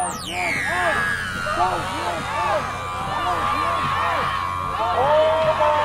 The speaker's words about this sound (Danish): Stem ham ud, råbte menneskemængden på det modsatte fortog, viftende med Biden og Harris-skilte og udstyret med store højtalere